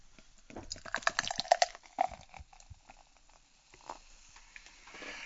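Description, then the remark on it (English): Allagash Crosspath, an all-organic beer, pours from a can in a gurgling rush of splashes for a couple of seconds, then settles into a soft, fizzy trickle and hiss with no one speaking. “Yeah, so these are uh, Allagash very kindly sent us a, a couple of cans of their Crosspath, the, the beer that we were just talking about with Patrick, and let's get to tasting, shall we? Ah, here I love we that go. sound.”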